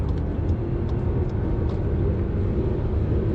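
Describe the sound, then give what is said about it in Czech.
Loud, steady rumble of highway traffic as a truck with a Romanian licence plate overtakes in the left lane, a continuous low engine and tire drone that holds at an even level without pauses or voices. “Kamion před námi s rumunskou poznávací značkou předjížděl levým jízdním pruhem.”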